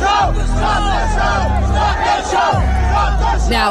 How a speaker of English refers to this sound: showing that the crowd knew that they were in danger and they begged people to stop. At one point, there was a small group of people saying, Stop the show. Stop the show! Stop the show! Stop the show!